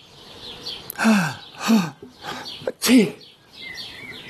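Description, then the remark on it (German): A run of four loud sneezes in quick succession, each a sharp burst of breath with a falling vocal tone, while birds chirp faintly in the background. “Also ich sag's immer noch, wenn jemand nieste.”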